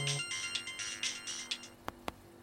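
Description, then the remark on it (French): A phone rings with a bright electronic ringtone, a rapid trilling pattern repeating in short bursts, followed by two sharp clicks. It is fairly loud, with no one talking. “Et là, ça tombe bien, le téléphone sonne”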